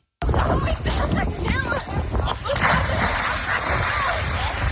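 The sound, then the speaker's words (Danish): A person dives into water with a loud splash, followed by continuous sloshing and churning water that surges again partway through, with indistinct voices in the background. “Ja, og det var to meget forskellige plask.”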